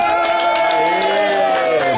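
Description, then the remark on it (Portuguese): An audience cheers and shouts loudly for two seconds as the guest Natália Martins, known as Natália Beauty, is introduced: a dense wash of many voices with scattered clapping mixed in, sustained without any pause. “Faz barulho, calorão!”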